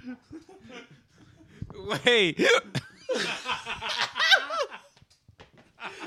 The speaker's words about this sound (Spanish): Güey, tengo hipo, güey, no mames, güey.